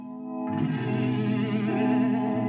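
A rock passage with sustained, swirling organ chords over a dense, distorted band texture; a thinner held tone opens before the full sound swells in after half a second and stays loud.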